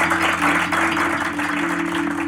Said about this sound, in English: Yeah, thank you. Let's clap all of us.